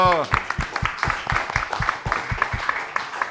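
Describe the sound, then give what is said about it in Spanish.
A group claps together in a steady, even rhythm to applaud a singer, the claps bright, with a brief voice at the start and a general crowd murmur underneath. “Le damos un aplauso.”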